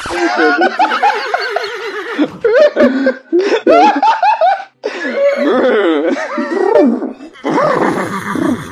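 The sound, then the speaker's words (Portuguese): A person loudly imitates a horse whinnying, with quavering, wobbling vocal neighs repeated in bursts for several seconds, mixed with laughter. “O cavalo disse: Cavalo!”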